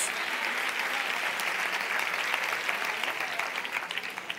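A church audience applauds the Lord steadily, a dense wash of many hands clapping at an even loudness throughout, with no voices standing out above it.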